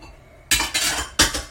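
Dishes and cutlery clatter in a sink: two bright bursts of clinking metal and ceramic, a quick rattle then another sharp clatter, with no one speaking.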